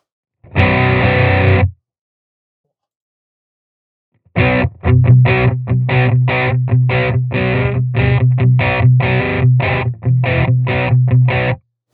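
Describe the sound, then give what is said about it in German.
An electric guitar played through a British Crunch distortion effect with mild crunchy overdrive rings out one sustained chord, falls silent, then launches into a steady run of loud, rhythmically strummed chords with no voices. “Guck mal, da gibt es so ein was macht denn der British Crunch da oben?”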